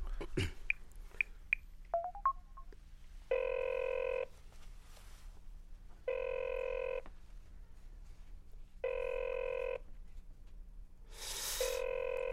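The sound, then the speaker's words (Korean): A few quick dialing beeps, then a phone ringback tone buzzing in long, evenly spaced bursts, three full rings and the start of a fourth, clear with no one talking. “아, 아저씨 전화 한번 해보세요.”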